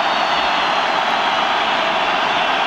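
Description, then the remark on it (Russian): A loud, sustained wall of whistling from a big stadium crowd protesting a disputed goal during the Krasnodar versus Rostov football match, a dense, shrill hiss that holds steady for the whole moment with no voices standing out. “Негодует стадион, вы слышите свист.”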